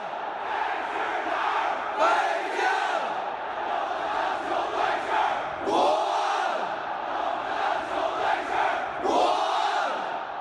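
A large stadium crowd of Beijing Guoan football fans at the Workers' Stadium in Beijing chants a slogan in unison over a constant roar, the loud shouted phrases swelling in rhythmic waves every few seconds.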